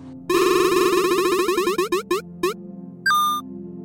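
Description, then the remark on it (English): A prize wheel spins with a rapid run of bright, tonal ticks that gradually slow and space out before stopping, followed by a short ringing ding. Loud, with no talking. “Spin the wheel to play and I'll ask you a question.”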